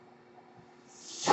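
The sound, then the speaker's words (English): A person's own medical ventilator hisses airily, swelling up from a quiet, faintly humming background and building to a loud breathy rush at the very end, with no one talking. “and that noise you're hearing is my ventilator.”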